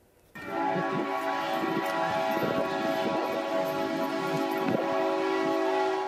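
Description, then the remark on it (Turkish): A loud, sustained train horn blares with steady harmonic tones, mixed with rumbling and clatter of a fast train approaching a level crossing in Indonesia; no talking. “Anne ve çocukları hızlı gelen trenin altında kalmaktan son anda kurtuldu.”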